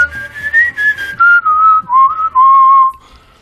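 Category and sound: human body sound, person whistling a tune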